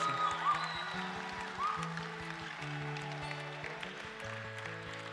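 Steady audience applause, a dense crackle of many clapping hands lasting throughout, with sustained keyboard chords playing underneath at an even, fairly loud level.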